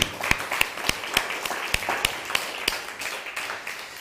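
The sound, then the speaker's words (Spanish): Audience applause: sharp, evenly spaced claps ring out over a dense, hissy wash of many hands clapping, holding steady and moderately loud for about four seconds before easing slightly. “Dale un fuerte aplauso.”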